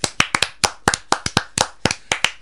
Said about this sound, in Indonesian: Baik Bapak-bapak dan Ibu-ibu sekalian, di Hari Internasional tentang Kehilangan Pangan dan Pengurangan Limbah, keynote speaker kita Bapak Ilham, ya kita beri tepuk tangan.